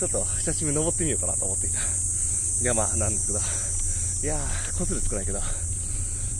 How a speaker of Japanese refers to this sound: まあそんなことで、セミの鳴き声も素晴らしい。いやー、よく泣いてますね、本当に。